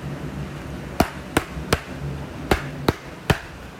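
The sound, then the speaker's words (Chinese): Cannon fire aimed at a hut, fired by Silver and his gang: six sharp, cracking bangs come in two quick bursts of three, each short and punchy, over a low, steady rumble with no voices. “原来是希尔法朝着小屋发射火炮，等到炮声停了”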